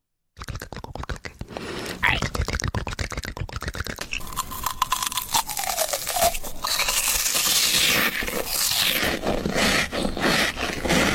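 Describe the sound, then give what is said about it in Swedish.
An ASMR recording of someone eating: crisp crunching and chewing, a dense run of rapid crackles and mouth clicks that keeps going steadily, with soft breathy whisper-like sounds mixed in. “Precis, men det kan också vara andra typer av ljud, alltså när folk äter eller, eh, ja, vi lyssnar.”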